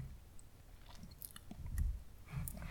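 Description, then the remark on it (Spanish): Quiet mouth sounds of someone drinking water: a couple of soft gulps and swallows with small wet clicks, and no talking. “pausa para trago de agua y arreglar mis ideas ya para empezar a cerrar el programa.”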